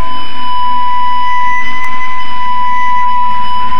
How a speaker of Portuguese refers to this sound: Voltando à história, a introdução dos captadores gerou um pequeno problema, pois eles faziam vibrar o corpo oco das primeiras guitarras, provocando a famosa alteração sonora conhecida como microfonia.